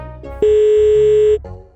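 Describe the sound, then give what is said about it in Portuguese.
A telephone ringing tone as a woman calls her husband's phone: one loud, steady mid-pitched beep holding for about a second, with a soft low rumble before and after it. “Tá chamando. Atende, troço.”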